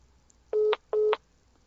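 Two short, loud electronic phone tones, each about a fifth of a second, separated by a brief pause, like a call-waiting signal on a telephone line, with no voices.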